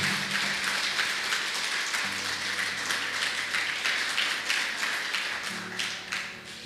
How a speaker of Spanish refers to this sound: El Señor les bendiga, que sean parte de esta reunión y todos los que estamos aquí presentes recibimos a esas personas con un fuerte aplauso. ¿Qué les parece? Esto es para ustedes